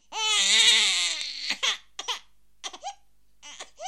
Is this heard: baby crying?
yes